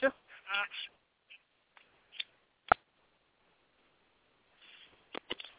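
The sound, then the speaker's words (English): Scuffling handling noise with a few sharp knocks and thumps scattered irregularly as a phone slips out of someone's hand and bumps against things, plus brief squeaky, honking scrapes early on. No talking. “the, the phone slipped out of my hand.”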